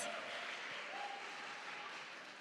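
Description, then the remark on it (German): A crowd applauds steadily for a couple of seconds for two children about to give testimony, a dense, even wash of clapping with a faint tonal trace of a voice or cheer mixed in, fairly quiet throughout. “Und das ist euer Applaus.”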